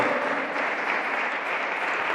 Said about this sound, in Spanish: Sí, dale un aplauso fuerte, Señor. Él es digno.